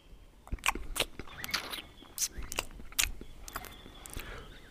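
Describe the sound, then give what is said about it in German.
A voice makes wet smacking, chewing noises, imitating a parrot eating a biscuit, a quick irregular series of mouth clicks and slurps running for several seconds with no talking. “Der äh, Papagei schmatzt etwas komisch für einen Papageien.”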